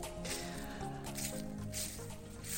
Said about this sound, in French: Alors aujourd'hui, c'est un épisode un petit peu spécial que j'enregistre debout, en balade dans la nature. tu entends le bruit euh, de mes pas dans mes feuilles.